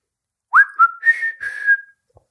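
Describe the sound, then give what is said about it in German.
A person whistles a short, clear tune alone: a quick rising note, a brief second note, then a longer held tone that wavers slightly before stopping, fairly loud. “Kannst du, du kannst pfeifen?”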